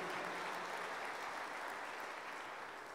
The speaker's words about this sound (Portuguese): Se você é um desses, dá mais um aplauso ao Senhor, onde a morte não tem domínio sobre a tua vida.